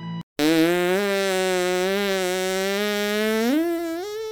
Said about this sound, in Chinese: 又来一个超长的屁，这一次比上次更大声，而且还更臭了。